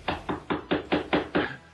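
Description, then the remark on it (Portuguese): Six quick knocks on a door in an even, steady rhythm, sharp, with no voices around them. “Uma porta!”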